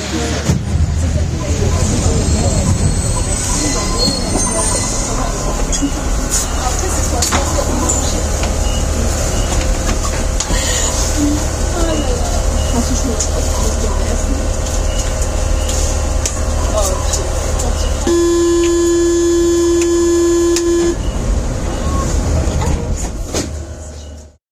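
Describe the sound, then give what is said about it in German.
A Paris metro Line M1 train rumbles and hums steadily with rail noise and faint background voices, then a loud sustained electronic tone sounds for a few seconds near the end, signaling that passengers must leave through the doors at once. “Also in die U-Bahn-Station rein, äh, dann ist das die Linie M1 und die, äh, ja, die hört sich dann ungefähr so an.”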